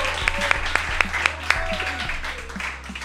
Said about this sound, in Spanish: Oh, es más, el aplauso para Lufo, fuerte aplauso para Lufo, a huevo.